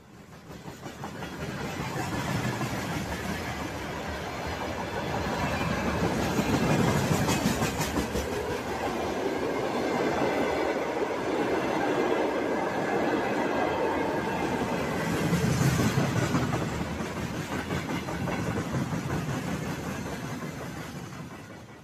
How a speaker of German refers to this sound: Das sind Güterwaggons, auf denen Panzer, Haubitzen, Raketenwerfer und allerlei militärisches Gerät aus Zentralrussland äh, und Sibirien an die ukrainische Grenze gefahren werden.